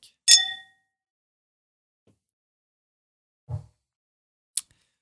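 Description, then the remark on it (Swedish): Glasses clink in a toast to a musician: a single bright glass clink rings out with a sustained, shimmering tone that fades over half a second, followed later by a soft low thump and a brief, sharp tick. “ja, men du, då skålar vi till mm. …-mannen.”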